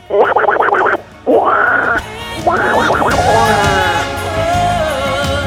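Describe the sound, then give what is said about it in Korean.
Loud duck-like quacking of Donald Duck, for ducks swimming leisurely in water, in a few nasal, rapid bursts, with short pauses between them and a longer, drawn-out quack at the end. The sound is cartoonish and raspy. “물 속에서는 귀여운 오리 친구들이 한가로이 수영을 즐기는 중입니다.”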